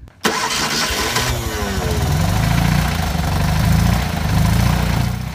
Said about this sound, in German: bittet meinen Mann einzusteigen auf den Beifahrersitz, setzt sich selbst hinter das Lenkrad und lässt den Motor an.